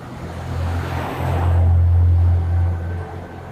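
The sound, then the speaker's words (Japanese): A car swells past on a street, its broad whoosh rising and fading over a few seconds above a steady low engine-like hum, heard while leisurely cycling along sloping back streets, with no one talking. “めっちゃ車が通ってると書いてあるんですけど、なんかね、たまにこういうとこぶつかるのもあるかもしれないですけれども。”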